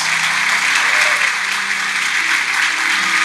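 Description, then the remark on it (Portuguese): A church audience claps for Jesus in a steady, dense wash of applause that stays loud and even throughout, with no voices standing out above it. “Vamos aplaudir Jesus.”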